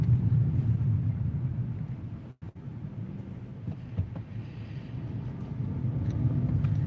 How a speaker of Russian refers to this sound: Мы пока такую небольшую пробку попали. Здесь трудновато, конечно, двигаться